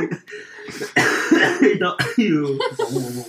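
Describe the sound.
A close, harsh cough bursts out, followed by throaty vocal sounds and rough clearing, with voices murmuring around it in a small room.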